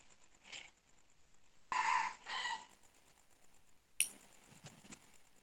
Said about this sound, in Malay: awal ayam kokok. Oh, masuk subuh.